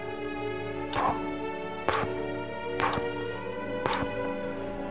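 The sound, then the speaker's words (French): A Comtoise grandfather clock in a house's entrance hall ticks slowly and steadily at night, about once per second, each tick crisp, over a soft sustained musical drone with no one speaking. “Seule l'horloge comtoise de l'entrée résonne dans le silence, comme un gros cœur qui bat dans la nuit.”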